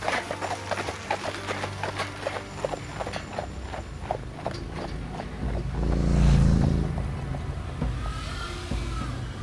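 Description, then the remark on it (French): A horse's hooves clip-clop at a steady walking pace, pulling a rattling cart carrying a family, with a broad rumble swelling in the middle. “Il installe sa femme et ses sept enfants dans sa carriole. Il fouette son cheval et il prend la direction de West Dallas.”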